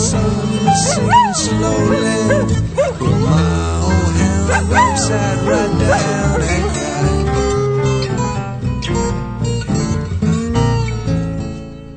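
A rock song plays loud, near its end with about a minute left, a sung vocal line riding over a dense full band, the energy steady throughout and easing only slightly in the final seconds.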